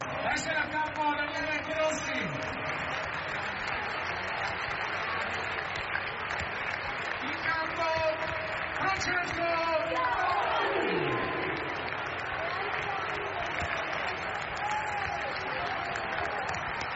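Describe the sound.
A large stadium crowd roars and applauds in a sustained ovation for Francesco Totti as he steps onto the pitch at the Rome derby against Lazio. It is a dense wash of cheering, clapping and shouting voices that stays loud and steady throughout.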